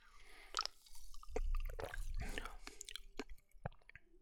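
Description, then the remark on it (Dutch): Wet slurping and swallowing sounds with a few faint clicks and drips as someone takes a sip of Coca-Cola Goji Berry from a 330 ml can, with a brief low murmur in between. “Ik ga er eens een slokje van nemen.”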